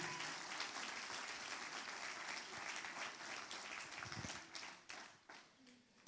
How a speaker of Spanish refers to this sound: Pero eso merece un mejor aplauso.